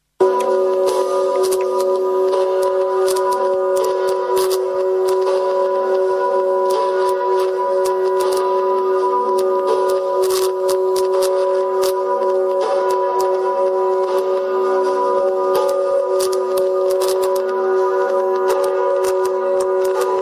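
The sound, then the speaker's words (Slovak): Warning bells ring steadily and loudly for the whole stretch, their sustained tones layered with rapid, clattering strikes and no voices over them. “Kedysi tieto zvony znamenali, že sa blíži niečo neodvratné, katastrofické, strašné.”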